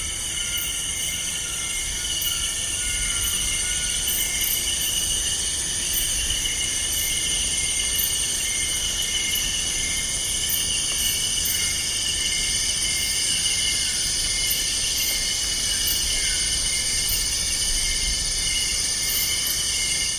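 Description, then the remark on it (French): A dense, continuous chorus of billions of insects fills an equatorial forest at night, layered high-pitched buzzing and trilling bands sustained steadily throughout, with a low rumbling undertone and no voices. “c'est extraordinaire d'écouter une forêt équatoriale la nuit. Il y a des voix lentes, des voix rapides, tout ça simultanément”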